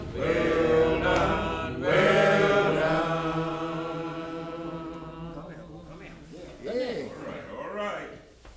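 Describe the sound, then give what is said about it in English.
Chanteymen's voices sing a slow railroad work song, Going Back to Weldon, adapted for work on the water, holding long, steady notes in one sustained phrase, then a shorter wavering line that rises and falls, with no instruments. “And so it was a railroad work song that had been adapted by them for the water.”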